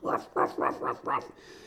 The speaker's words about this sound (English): Holy shit, this dog won't shut up.